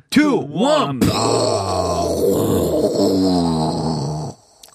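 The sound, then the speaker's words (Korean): A voice imitates the gunpowder blasting used at a mine: two quick swooping vocal tones, then a sudden loud, rough, rumbling roar sustained for about three seconds before it cuts off. “오, 이건 화약이고요.”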